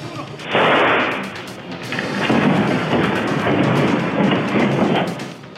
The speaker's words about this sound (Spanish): En segundos comienzan a escucharse disparos, mientras que afuera de la florería se encontraba una patrulla de la unidad de vialidad y tránsito que al escuchar las detonaciones circula en reversa y sale de la escena.